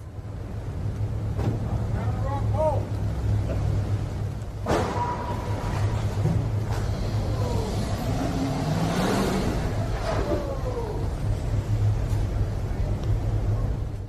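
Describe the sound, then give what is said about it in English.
Traffic rumbles steadily as a car engine revs and speeds up, with a sharp thump partway through and faint, indistinct voices mixed into the noise. “So they got a little nervous because some traffic sped up.”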